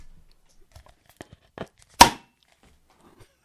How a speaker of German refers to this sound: Und zur Feier des Tages spiele ich jetzt ein Bier öffnen Soundeffekt ab.